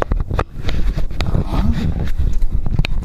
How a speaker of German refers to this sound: So, jetzt werden wir wieder den Fuß ranschrauben, das Gerät aus der Tasche nehmen, den LSP. Ihr hört es jetzt wieder schrauben.